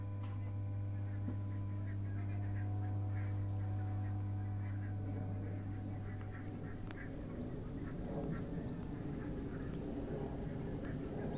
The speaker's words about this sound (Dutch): Met op de achtergrond het gegak van de ganzen, het geritsel van de blaadjes en het geoefen van de militairen, mogelijk van Vlieland, die een oefening houden met straaljagers.